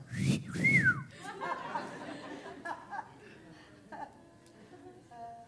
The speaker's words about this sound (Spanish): Si me va a silbar acá.